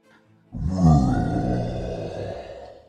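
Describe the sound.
A deep, bellowing roar from below, off in the distance, surges in after a brief near-silence and rolls on as one long, rumbling bellow that slowly fades, with no voices present.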